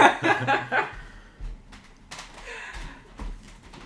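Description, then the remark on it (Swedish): A door is handled and pushed shut, producing a few dull low thumps and light rattles over several seconds, after a brief burst of bright chirpy birdsong at the start; the door is closed to shut out the loud birds. “Jag ska bara stänga dörren för fåglarna låter så mm. himla mycket.”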